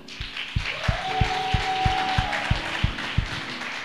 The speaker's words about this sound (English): just stand up and wave. Clap for her.